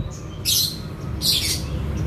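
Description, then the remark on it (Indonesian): Two bright, high-pitched bird chirps ring out about a second apart, outdoors in front of a boarding house on a busy, cloudy morning, over a steady low rumble of background noise. “ada burung-burung, pohon, awan mendung”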